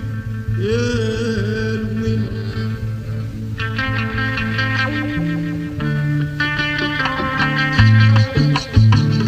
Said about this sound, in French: Sur de nombreux enregistrements de l'époque, on peut entendre la forte distorsion provoquée par la guitare wah-wah